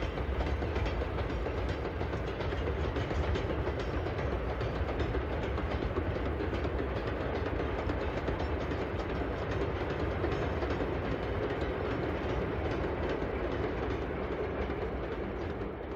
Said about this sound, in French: père et son fils euh, sont assis euh, à bord du train, qui est un vieux train à vapeur.